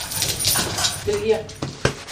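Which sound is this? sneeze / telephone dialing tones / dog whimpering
dog whimpering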